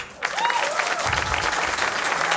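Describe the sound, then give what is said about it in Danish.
An audience, asked how many of them think the people were activists, breaks into steady applause after a brief quiet moment, a dense, loud wash of clapping hands that carries on without pause to the end. “Så altså, vi kan jo bare spørge publikum, vi kan jo bare spørge publikum, øh, hvor mange her blandt publikum synes, at de var aktivister, må vi høre en applaus.”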